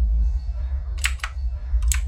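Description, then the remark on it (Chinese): Typewriter keys clack in two quick clusters, a few sharp bright strikes each, over a steady low rumble with no voices, the keys moving up and down on their own at night in a room with no one at the machine. “他打开灯，打字机的键盘上上下下的动着，仿佛有个看不见的人影在操作似的。”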